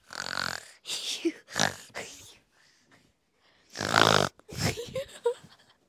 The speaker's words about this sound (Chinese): 好，大家都听到打呼的声音，竟然这么大声，太可怕了。